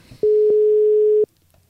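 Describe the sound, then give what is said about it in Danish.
A single steady electronic telephone ringing tone of an outgoing call, a clean mid-pitched beep held for about a second, then silence. Clear and fairly loud, with no voices. “Vi ringer til hende.”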